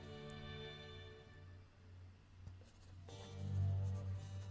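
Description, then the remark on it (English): A pen scratches across paper in short, intermittent strokes as someone writes a letter, fairly quiet, over a steady low background hum. “Um, every once in a while, I like to write letters to very famous people.”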